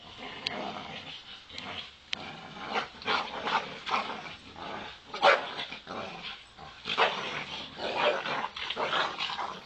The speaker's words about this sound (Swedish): Vi börjar det här avsnittet med att lyssna på ett filmklipp. Det föreställer två kraftiga hundar som kämpar mot varandra. Just det här klippet tycks inte handla om en kamp på liv eller död.